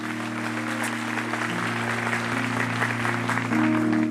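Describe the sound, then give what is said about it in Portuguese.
An audience at a church service stands and applauds the Lord, a dense wash of clapping that holds an even loudness throughout, with a low sustained organ-like hum beneath it. “Vamos aplaudir ao Senhor, vamos ficar em pé.”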